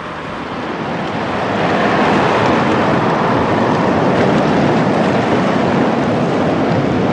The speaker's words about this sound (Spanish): Pronto nuestra goleta fue azotada por las olas del Atlántico. Tuvo que zigzaguear contra el viento del norte y no sin esfuerzo alcanzó las Feroe.